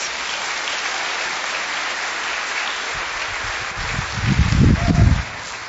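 An audience claps for a high school boy after his performance, a steady dense wash of applause that swells louder toward the end, with a burst of low rumbling cheers or stomps near the finish before it fades.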